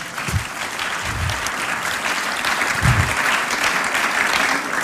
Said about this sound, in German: Wow, geben wir ihm Applaus.